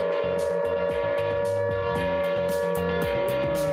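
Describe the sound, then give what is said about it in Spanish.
A video game raid alarm blares as one steady, unbroken high tone for the whole stretch, over rhythmic low thumping and recurring bursts of hiss, with no one speaking. “La alarma de raid.”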